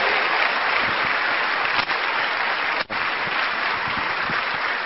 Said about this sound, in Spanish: Los que están detrás de todo esto son sus líderes. De modo que denles un fuerte aplauso a todos sus líderes. Aquí están representados. Muchas gracias a los líderes.